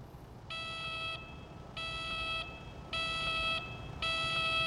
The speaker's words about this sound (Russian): Так, эту сирену можно вырубить? Нет, только звук.